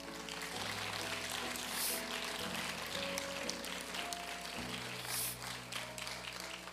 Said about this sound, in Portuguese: Você pode aplaudir ao Senhor, meu irmão.